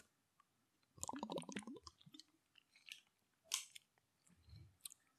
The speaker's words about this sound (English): Let me let me take a sip of water. I'm getting parched.